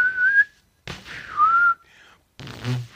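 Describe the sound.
A person whistles a short melody in a few breathy phrases, with brief pauses between them and some airy hiss around the tones.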